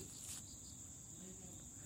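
A steady, high-pitched insect chorus drones continuously from nearby grass, like crickets trilling, with a faint low rumble underneath and no break in the sound.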